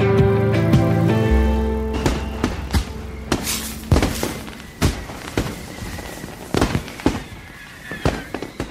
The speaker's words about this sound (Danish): Sådan her kommer det måske til at lyde mange steder i dag. Det er nemlig den 27. december, og det er altså første dag, at man helt lovligt må affyre fyrværkeri.